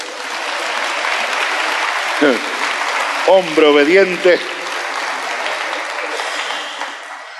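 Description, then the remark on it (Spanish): Steady applause from a crowd fills the whole stretch, a dense, even patter of many hands clapping, while a man's voice briefly calls out over it partway through. “De otro aplauso, por favor.”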